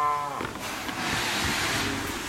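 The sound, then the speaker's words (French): A dairy cow on a farm with 120 dairy cows lets out a short, low moo right at the start, then a steady wash of barn noise and rustling continues. Nobody speaks. “On a 120 vaches laitières, donc on a à peu près un veau par vache par an, donc ça fait ouais, 120 VH quoi”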